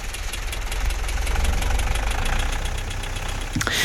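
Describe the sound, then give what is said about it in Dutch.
A tractor engine runs steadily, its deep rumble carrying a rhythmic diesel knock that stays loud and even throughout, with no voices. “Maar als je van de trekker afkomt, dan voel je wel ietsje een beetje wiebelig.”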